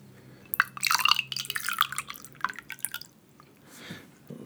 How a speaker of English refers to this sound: If you're ready, I'll give you a little pour. There you go.